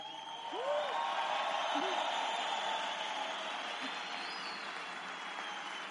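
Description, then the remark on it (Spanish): A large audience applauds loudly and steadily for several seconds, a dense wash of clapping with a few scattered whistles and shouts rising above it. The applause is for the event's emerald- and higher-ranked members. “Pero agradecerles a todos ustedes y me gustaría un fuerte aplauso para ellos.”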